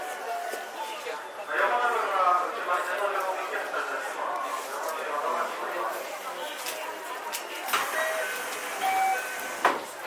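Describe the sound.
A JR 323 series commuter train at the Momodani station platform, its electric motors whining steadily as it moves, with brief clanks and murmuring voices mixed into the continuous rumble.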